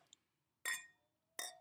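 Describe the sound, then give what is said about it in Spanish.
Two bright glass clinks ring out, the first at about 0.65 seconds and the second near 1.4 seconds, each with a shimmering tail, as stemmed drinking glasses are touched together in a toast. A tiny tick comes first. “La diferencia de cómo suena con sus copas.”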